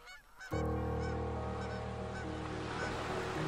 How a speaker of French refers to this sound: Par centaines, par milliers, les grues cendrées ont traversé notre ciel en remontant vers le nord.